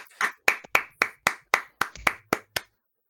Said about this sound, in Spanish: Eh, yo creo que un momento para aplaudir, porque hemos llegado a seis seguidores. Yo creo que un momento para aplaudir.